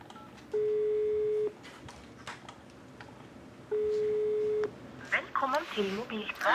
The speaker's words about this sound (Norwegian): Ingen av naboene til Espen tar telefonen.